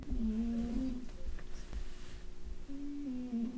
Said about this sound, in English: Yep, I hear it. Because if it's not snoring, I'm really concerned. yeah, he's totally snoring.